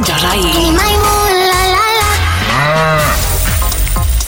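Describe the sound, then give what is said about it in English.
A loud, drawn-out cow moo with wavering, sliding pitch, prominent over a busy layered background that fills the few seconds with no pauses, used for the Cork's 96 FM Cash Cow giveaway. “play the Cash Cow giveaway. The Corks 96 FM Cash Cow.”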